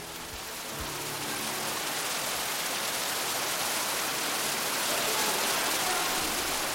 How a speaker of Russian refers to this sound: Откуда-то из глубины пещеры с 9-метровой высоты обрушивается поток шириной 8,5 метров. Ежеминутно падает около полутора тонн воды.